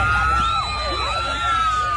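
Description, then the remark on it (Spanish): A loud, dense crowd of a singer's fans cheers and screams continuously around the black vehicle he was in, some climbing onto its hood, with overlapping high-pitched shrieks and whoops rising and falling over a steady roar of voices. “Eh, nada, volviendo al tema de …, eh, es impresionante eh, cómo la fanaticada enloquece con …, al nivel de, treparse en la capota del vehículo donde estaba ….”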